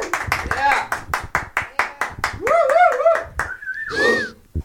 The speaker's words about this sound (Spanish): Bienvenidos al primer open mic de Pozoye, mejor conocido como el Sit Down Comedy Special. Aplausos, por favor, público.